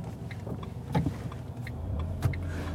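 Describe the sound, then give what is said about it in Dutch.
Steady low rumble of a car interior on the move in chaotic traffic, with passing traffic noise, a few clicks and brief bursts of sound over a constant road drone. “dan moet je sowieso niet qua plaats botsen op een andere auto. Het is echt chaos hier.”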